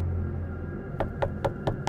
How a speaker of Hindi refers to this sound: गाड़ी रुकी तो वो बच्चे गाड़ी की तरफ बढ़ने लगे और शीशे पर खटखटाने लगे